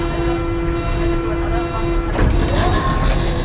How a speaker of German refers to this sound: Das war die Klingel der U-Bahn.